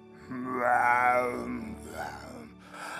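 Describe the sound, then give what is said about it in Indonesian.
A storyteller imitates a lion's roar with their mouth: one loud, drawn-out growling cry, easing into softer throaty rumbles afterward. No words are spoken. “Ketemu singa.”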